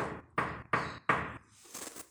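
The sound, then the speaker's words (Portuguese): Four firm knocks on a door in a steady, even rhythm, fairly loud, each ringing briefly, followed by a softer, thinner rap. “Batem na nossa porta da alma, do coração, ó.”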